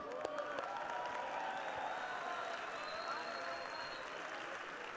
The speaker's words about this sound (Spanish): Venga, venga, un fuerte aplauso, por favor.